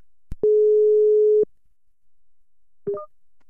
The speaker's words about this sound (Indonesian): ya udah kalau gitu kita telepon aja sekarang. Ini dia bintang tamu kita, mari kita telepon.